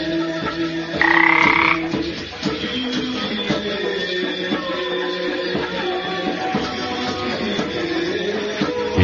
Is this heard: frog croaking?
yes